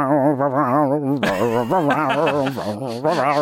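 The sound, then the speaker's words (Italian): A voice sings the Imperial March melody from a scene of The Empire Strikes Back with a strong, wobbling vibrato, loud, in sustained held notes with a few short breaks, without any spoken words. “la, la marcia imperiale delle, di, di, una scena dell'impero colpisce ancora”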